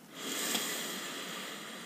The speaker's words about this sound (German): Atme mal ganz bewusst mit mir ein durch die Nase.